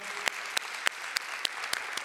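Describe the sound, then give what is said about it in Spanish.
An audience applauds the church's technical and production team with a steady wash of clapping, punctuated by sharp, evenly spaced louder claps at a quick regular beat, about seven over two seconds, with no voices. “desde tu casa también, si quieres aplaudir ahí donde estás, aplaude.”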